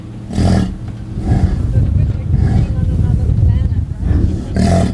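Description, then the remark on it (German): An excited bison bull, in a herd of about 250 bison, snorts and grunts loudly, a series of deep, rough bursts with sharper breathy blasts between them, filling the whole stretch. “Ein offensichtlich erregter Büffel schnaubt und grunzt.”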